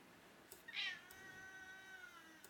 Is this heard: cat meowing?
yes